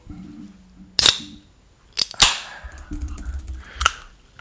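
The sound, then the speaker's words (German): A drink container being opened: a few sharp metallic clicks, then a louder crack followed by a short fizzing hiss, with a final click. No one speaks. “ich mache es auf.”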